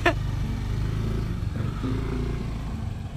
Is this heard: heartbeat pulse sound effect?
no